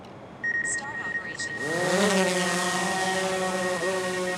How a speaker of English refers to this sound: The drone flies back and forth across the basin over the course of a few hours. It takes thousands of aerial photos to capture every crack and crevice.